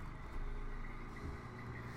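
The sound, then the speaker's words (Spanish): A heavy truck or bus rumbles past outside, its deep engine drone steady and moderately loud for a couple of seconds, with no voices over it. “Ah, pinches camiones, güey.”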